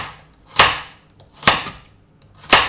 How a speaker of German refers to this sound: Und dann halbierst du sie nochmal so, dass du eine gerade Auflagefläche hast. Und dann schneidest du dir die Karotten klein, damit sie gut in den Mixer passen.